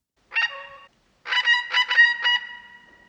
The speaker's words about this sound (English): the black currawong, which is only found in Tasmania.